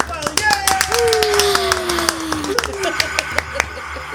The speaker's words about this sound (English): In the crowd cheers